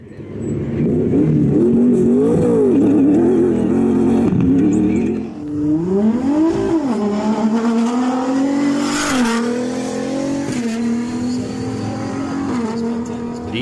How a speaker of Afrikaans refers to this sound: gebrul van die V8 maak nou plek vir die geskreeu van 'n dubbelturbo aangejaagde V6 wat normaalweg gevind word in die J300 Land Cruiser. Dit lewer net minder as 300 kW en 660 Nm wrinkrag.